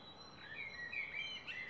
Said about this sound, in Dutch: Tijd voor een praatje met de medemens en ochtends gewekt worden door een mereltje. Mijn mereltje.